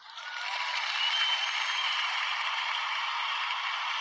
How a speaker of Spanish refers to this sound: Pues nada, Nelson, yo te dedico un besito y unos aplausos.